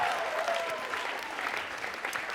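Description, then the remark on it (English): An audience gives God a clap of praise in a steady, dense wash of clapping that holds at an even, fairly loud level throughout, with a faint high tone gliding briefly near the start. “Come on, someone give God a clap of praise right now.”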